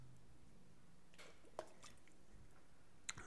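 Someone takes a quiet sip of water, with soft wet mouth sounds, a gulp and a couple of small liquid clicks. No one speaks.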